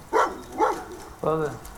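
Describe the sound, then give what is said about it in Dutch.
Dogs barking at a large boarding kennel with high metal cages: two short, sharp barks a half-second apart, followed by a longer, drawn-out whining yelp. “loopt langs de hoge metalen kooien van een groot hondenpension. Enkele honden volgen hem.”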